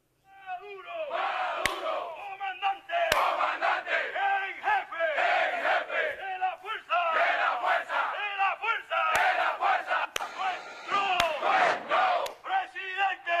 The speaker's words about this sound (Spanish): Quiero decir con esto, mis queridos amigos, que hoy, cuando ustedes ven y escuchan a estos soldados gritando estas consignas, el video sería más o menos este.